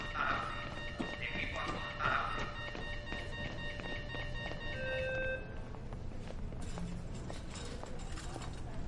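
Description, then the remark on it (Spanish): Quick, hurried footsteps of two surgeons running across a hard hospital corridor floor in a steady run, heard over a sustained electronic hum and faint ringing tones. “Llega a un pasillo. Dos cirujanos lo cruzan corriendo.”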